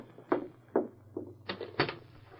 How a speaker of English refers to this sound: Open the door.